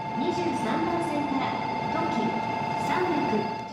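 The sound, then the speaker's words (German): A train in Japan rolls steadily along the rails with a continuous rumbling hum and a faint high whine, while people talk in the background throughout. “Wer jetzt im Zug sitzt, der hat meist ein Ekiben dabei.”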